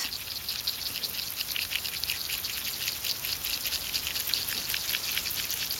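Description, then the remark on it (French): Tadpoles nibbling an underwater plant, recorded with a hydrophone in water in Paris in early summer, make a dense, steady crackle of tiny crisp clicks and ticks, heard up close through water with no voices and no pauses. “Des têtards grignotent une plante.”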